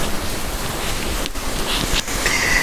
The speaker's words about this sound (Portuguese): Graças a Deus, que chuva abençoada. Essa chuvinha é muito abençoada.